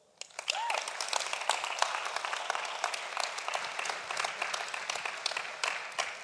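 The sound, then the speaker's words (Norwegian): An audience breaks into sustained applause for a woman called up to speak, a dense wash of many hands clapping at steady loudness for several seconds, with a brief whistle near the start. “Gi henne en stor applaus.”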